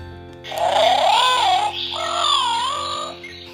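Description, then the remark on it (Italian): Small birds chirping in two drawn-out, wavering warbles, one after the other, loud with a slight pause between them and no voices. “gli altri uccellini volano via cinguettando.”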